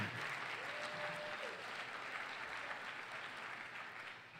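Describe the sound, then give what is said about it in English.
A crowd applauds steadily, a dense wash of clapping that stays loud throughout and eases slightly toward the end, with no voices standing out. “In fact, you can, you can applaud that.”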